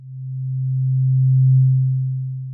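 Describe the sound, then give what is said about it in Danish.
A deep, low-pitched pure tone hums steadily for a couple of seconds, swelling gently louder toward the middle before easing off, with nothing else around it. “Så de nederste hår i sneglehuset tænder, hvis det er en dyb tone”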